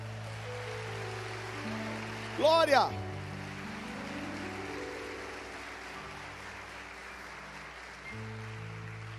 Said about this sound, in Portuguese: Vamos aplaudir o Senhor por esse amor.